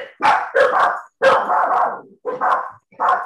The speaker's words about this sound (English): so this is um Trevor's house, and these are his dogs. And um, can you quit it, please? Thank you.